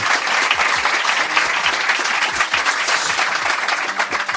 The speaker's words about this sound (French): On peut applaudir aussi. Merci beaucoup à la Coroutine. Merci à la Coroutine.